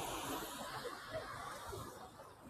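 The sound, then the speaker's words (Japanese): Steady, continuous road traffic noise on the way to Takadanobaba: a broad hissing wash with low rumble underneath, holding at a constant level throughout with no voices and no distinct pass-bys. “車の音がうるさくてすいません。”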